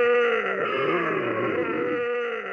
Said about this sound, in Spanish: esos sonidos guturales de antes empiezan a volver unas voces igual de gruesas, un tanto rasposas